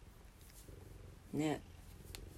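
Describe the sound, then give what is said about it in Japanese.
A single short cat meow, clear, rising above a quiet background; a voice speaks softly before and after it. “にゃんにゃん言ってますね変化ちょっとでも変化がこうやってあるとねストレス感じやすいですね猫ちゃんはね”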